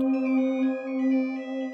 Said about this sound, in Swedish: Det ringer på Kalle Levenhaupts telefon. Det är Johan av Donner som ringer.